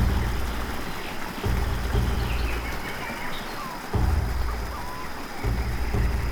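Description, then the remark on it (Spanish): A steady, broad rush of a river flowing through jungle fills the scene, with faint chirping birds scattered above it and low rumbling surges in the background of a dense outdoor ambience. “Así que tomas un momento para cerrar tus ojos, abrir tus oídos e intentar captar en el fondo de esa selva el sonido del río.”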